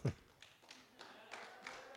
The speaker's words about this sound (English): Hey, that's a legitimate clap. I'll give you that one.